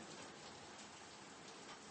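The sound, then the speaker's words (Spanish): Heavy rain pours down in a dense, steady hiss of countless drops hitting a surface, loud and continuous with no voices. “Y junto contigo yo estoy ubicándome también, estoy observando las gotas de lluvia”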